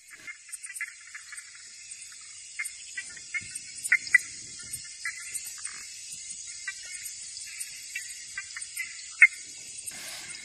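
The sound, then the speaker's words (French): A dense night chorus of insects in the Amazon jungle, steady high-pitched buzzing and trilling with scattered sharper chirps and calls popping out, no voices, continuous throughout. “Et quelque chose que tu aurais entendu euh, entendu, ce qui m'a vraiment marqué, euh, c'est les bruits de la jungle en Amazonie euh, la nuit.”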